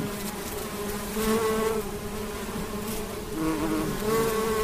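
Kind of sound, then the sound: insect, bees buzzing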